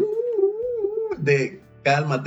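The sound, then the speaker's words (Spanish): A voice mimics an alarm siren with a wavering, rising-and-falling wail for about a second, fairly loud, followed by a few quick spoken words. “Y aquí suena la alarma de”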